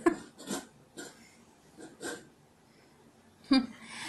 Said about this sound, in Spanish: Ese es el perro tomando agua.